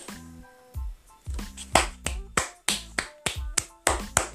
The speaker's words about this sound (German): Applaus, Applaus ja, das war's.